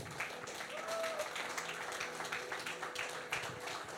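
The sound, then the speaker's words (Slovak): An audience applauds together, a steady, dense patter of many hands clapping that holds for about four seconds at an even level, with a faint tone sounding briefly in the background. “Dajme Bohu jeden potlesk spolu.”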